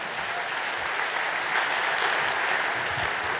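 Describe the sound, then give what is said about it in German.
An audience claps steadily while a winner and a loser come up onto the stage, a dense, even wash of many hands filling the whole clip at a fairly loud, constant level, with no voices standing out. “So, einmal Applaus, bis wir alle oben sind und dann.”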